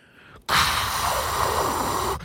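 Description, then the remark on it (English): A voice imitates a white noise machine with a steady, loud breathy hiss that holds for nearly two seconds, then cuts off abruptly. No words are spoken. “So instead of your white noise machine,”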